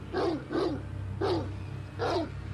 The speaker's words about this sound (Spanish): Mis animalitos se pusieron inquietos, ladraban nerviosos y encogían las orejas.